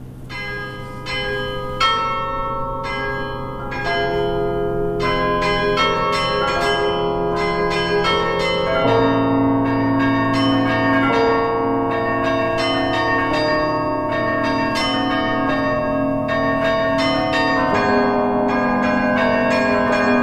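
A melody rings out on carillon bells, struck notes ringing over sustained low bell tones, steady and fairly loud with long shimmering decays, no voices present.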